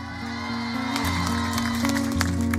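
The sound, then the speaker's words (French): An audience applauds and cheers for a singer's first live performance on the radio station Fréquence Plus, a dense, steady wash of clapping with scattered sharper claps and shouts over a low droning hum, holding at an even loudness throughout. “Applaudissements pour le premier live”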